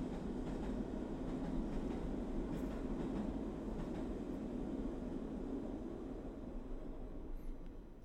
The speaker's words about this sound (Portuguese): Aí vem o comboio para fazer o drum roll.